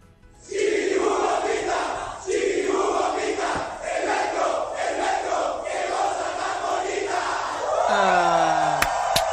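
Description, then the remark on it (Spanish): A crowd of metro passengers at Metro Juárez shouts a rhythmic group cheer in unison, loud and sustained with repeated phrasing, echoing inside the metro; near the end a brief high-pitched squeal cuts through. “Vamos a escuchar a unos usuarios que lanzaron una porra al metro.”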